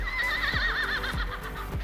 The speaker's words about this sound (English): Moving on, people have also reported hearing the sound of horse galloping through the streets at night.